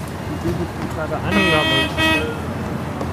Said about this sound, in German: Der Bus ist da.